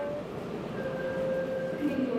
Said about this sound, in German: Mit der U-Bahn geht es dann weit raus. Weiter als ich dachte. Über 15 Stationen.